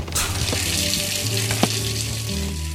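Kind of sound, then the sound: household object, shower water running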